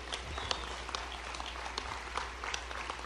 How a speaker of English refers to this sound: Finally, the applause I've been waiting so long for.